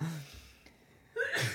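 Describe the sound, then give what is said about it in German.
A single sneeze bursts out near the end, a brief rising intake of breath followed by a sharp, hissing blast, after a quiet stretch with a faint murmur at the start. “Gesundheit und damit möchte ich auch sagen”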